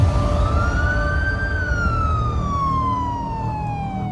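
A police patrol car siren wails steadily, rising slowly in pitch and then sweeping back down, loud over a low rumble of road noise, as the car pulls up on the streets of Akron. No one speaks.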